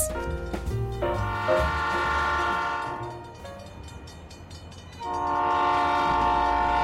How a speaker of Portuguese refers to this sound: Peguem seus bilhetes, pois o trem parte agora, saindo de Londres.